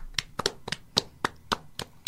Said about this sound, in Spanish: Y un aplauso, por favor.